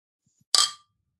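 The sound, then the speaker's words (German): A single bright clink of glasses of Ratsherrn Summer Ale beer touching in a toast, short, ringing briefly before fading out, with no voices over it. “Nur, nur, nur so ein bisschen, damit du es riechen kannst. Ah. Prost.”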